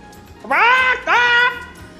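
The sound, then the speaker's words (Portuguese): A person imitates a rooster crowing as a time signal at five to eleven, with two loud, nasal, sustained vocal bursts in quick succession, with no other talking. “É, você pode imitar quando eu falar 5 para as 11 um galo?”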